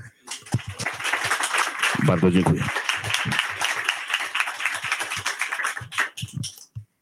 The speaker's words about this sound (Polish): dla Państwa … gorące brawa.